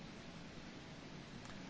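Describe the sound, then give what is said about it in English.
A steady, dense rush of water pours continuously without breaks into a sinking ship, a broad hissing roar that stays at an even level throughout, with no voices present. “Sounds of water rushing into the sinking ship as the crowd panics.”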